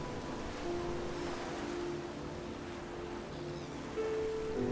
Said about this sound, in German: Höre die Wellen, wie sie rhythmisch an den Strand heranbranden und sich dann wieder sanft zurückziehen.